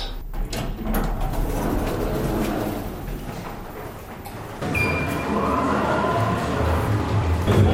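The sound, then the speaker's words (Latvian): The doors of the Latvian Radio lift slide open with a steady mechanical rumble and whir, the noise shifting partway through as the doors move, moderately loud, with no talking, on a ride down to the basement (zero) floor. “Šobrīd iekāpjam Latvijas radio liftā un braucam uz tā saucamo cokola stāvu, jeb nulto stāvu.”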